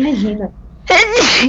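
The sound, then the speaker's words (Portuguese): A woman speaks briefly, pauses, then lets out a single loud sneeze with a sharp burst and a voiced trailing end, caused by rhinitis. “Isso é rinite já.”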